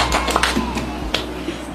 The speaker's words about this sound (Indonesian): tepuk tangan dong buat Yadika keren banget